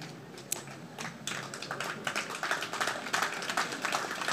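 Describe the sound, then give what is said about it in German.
An audience of colleagues claps during a speech, starting with a few scattered hand claps that quickly swell into dense, steady applause, many hands crackling together and growing louder toward the end. No one speaks. “bei diesen Kampfansagen dürft ihr sehr gerne klatschen.”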